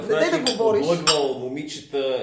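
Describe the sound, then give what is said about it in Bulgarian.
A couple of quick, bright clinks of glasses knocking together in a toast, partly buried under continuous conversation between several people. “започваме типично по български подкаста за българско кино, а именно с Наздравица”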